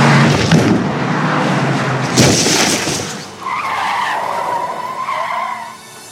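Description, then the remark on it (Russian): A car roars along with gritty, rumbling noise, then a sudden loud crash bursts out as the passenger car hits a person at over 60 km/h, followed by a wavering, high-pitched tire squeal that slowly fades. No one speaks. “Внезапное ДТП. То ли водитель не справился с управлением, то ли что, но на скорости больше 60 км в час в него врезалась легковушка.”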